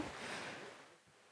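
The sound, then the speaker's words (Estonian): Heavy rain patters down in a steady, dense hiss that fills the whole clip, easing slightly near the end, with no voices present. “arvan, et me mahume siia veel, mitte oma toolidega ka tulla siia ettepoole, et, äh, et vihm on hakanud päris kõvasti sabistama”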